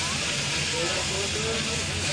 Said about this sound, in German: Also wir dünsten gerade das Gemüse an.